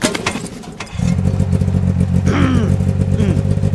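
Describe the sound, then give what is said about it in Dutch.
An old motorcycle engine is kick-started with an old-fashioned kickstarter pressed down with full body weight: a brief mechanical clatter, then after about a second the engine catches and settles into a loud, steady, throbbing idle. “is een ouderwetse kickstarter waar je met zijn volle gewicht op moet staan.”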